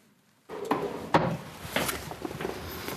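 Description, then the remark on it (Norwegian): A drawer at the Storting, Norway's parliament, is pulled open: a sudden knock, then a rough wooden sliding scrape with a couple of sharper clunks along the way. No voices. “I en skuff på Stortinget har det ligget i mange år.”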